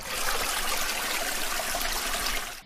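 Steady trickling water, a continuous bright babbling flow like a small stream, fairly loud for a few seconds with no voices, then cutting off abruptly.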